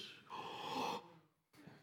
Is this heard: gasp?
yes